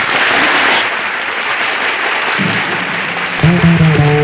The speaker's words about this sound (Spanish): Y el mejor homenaje para un artista que tanto vale y tanto ha hecho es el aplauso de un público que la ve.